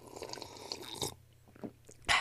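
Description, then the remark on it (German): Wet sipping and slurping of hot herbal tea, with soft mouth noises and small clinks, ending in a brief louder airy slurp. “Ja, Man muss ja eigentlich schlürfen, was eigentlich wieder blöd ist.”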